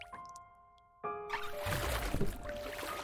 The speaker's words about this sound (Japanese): すっかり日が沈み星の見え始めた空の下をボートはゆっくりと進んでいきます